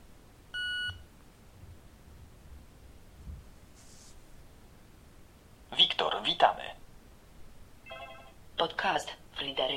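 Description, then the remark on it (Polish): A short, steady electronic beep from a Victor Stream audio player powering on via a small round key on its left side, followed by a quiet pause. Later a voice speaks, and a second brief tonal chirp cuts in between the bursts of speech. “Zatem Włączam urządzenie Victor Stream takim klawiszem e, z lewej strony, małym, okrągłym, z boku.”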